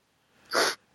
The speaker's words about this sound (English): You keep sniffing, and I think you're getting upset. But I think you just have a runny nose, right?